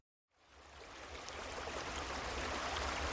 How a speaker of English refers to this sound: with this week's meditation, with the sound of the creek behind the cabin in the background.